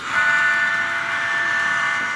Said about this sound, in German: Das ist jetzt der Bahnhof Sinn. Der steht im Gleis 3 Einzug. Der soll jetzt fahren, das ist die Stadttaste und soll jetzt auf die Strecke gehen. Und jetzt stelle ich das Signal und jetzt fährt der Zug los.